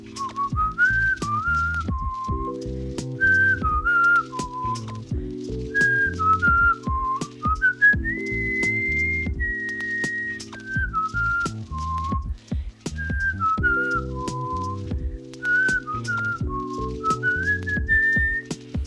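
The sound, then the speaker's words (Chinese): A clear, pure whistle-like wind instrument, imitating a whistle rather than being one, plays a bright, looping melody over a thick, sweet electric piano accompaniment with steady low chords and soft percussion; no voices. “紧接着的就是类似口哨的那种管乐声，嗯，是管乐声吗？”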